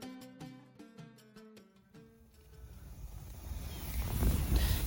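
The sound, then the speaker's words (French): A short melodic tonal passage fades out as strong wind on a mountain plateau takes over at 1 a.m., a low gusty roar buffeting the microphone and growing steadily louder toward the end. “Il se passe quoi, jeune Il du vent.”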